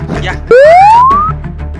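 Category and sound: sound effect, censorship bleep tone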